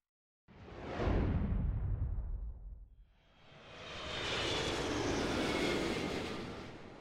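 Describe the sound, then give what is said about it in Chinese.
A small private airplane on a business trip roars with a heavy low rumble that dips briefly, then swells into a broad, steady rushing engine noise and holds loud to the end. No one speaks. “嗯，老公，我们好久没有坐私人飞机出差了呢。”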